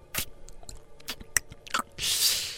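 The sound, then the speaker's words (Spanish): A voice imitates someone kneeling at a water hole, blowing on the leaves and drinking the water: wet slurping and lapping with quick mouth clicks and squishy bursts, then a short breathy blowing hiss, fairly quiet. “Y luego le hacías, mal, le hacías, le soplabas a las hojitas, güey.”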